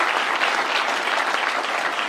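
A crowd claps steadily, a dense, continuous wash of many hands slapping at once, loud and even throughout with no voices rising above it.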